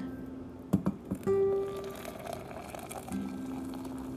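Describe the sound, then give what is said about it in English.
A few light clinks of ceramic, then water pours into a small cup from Sacred Grounds Cafe bearing the initials XOXO, with a hollow, ringing tone, fairly quiet, continuing in a steady stream toward the end. “So when you hear that water pour into the cup, that is the sound of heaven.”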